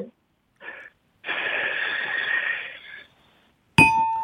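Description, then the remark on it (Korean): A voice imitates a cicada: a brief buzzy burst, then a sustained shrill, hissing drone lasting about two seconds. A sharp ringing clink follows at the end. “예, 자, 자 다시 한번 매미 기회 드릴게요.”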